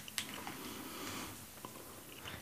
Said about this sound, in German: Also es war am Anfang so ein Knistern, dann war es ein, ähm, so, ein, so ein Knuspern beim, beim, beim Essen. Also, so wie ich dich kenne, ist es wahrscheinlich irgendwas Süßes.